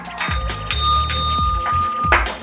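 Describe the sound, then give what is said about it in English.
A small hand bell rung weakly, giving a thin, steady metallic ring that lingers for about two seconds, with a few soft knocks and low handling thumps underneath. “Ring the jingling. I can't even reach it.”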